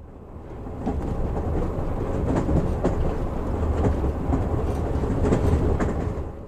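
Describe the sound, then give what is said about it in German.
A train rolls steadily along the rails with a low, continuous rumble and recurring clickety-clack beats from the wheels crossing joints, fairly loud, with no voices. “erkennen Sie diesen Sound und klingt er auch in Ihren Ohren wie Musik? Ich bekenne an dieser Stelle, Nachtzüge sind für mich das Größte, also die richtigen, noch mit Schlaf- und Liegewagen.”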